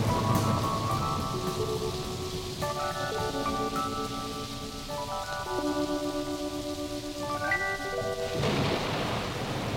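Steady, heavy rain hisses throughout with a low thunder rumble, while sustained keyboard chords shift pitch step by step over it. No one speaks.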